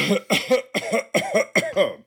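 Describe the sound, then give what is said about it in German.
A quick run of five coughs, fairly loud, each a short harsh burst with a voiced edge, evenly spaced with brief gaps and no talking. “Ich huste.”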